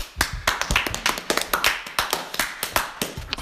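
Crisp hand clapping from what sounds like one or two people: a quick run of sharp, uneven claps lasting a few seconds, with no talking over it.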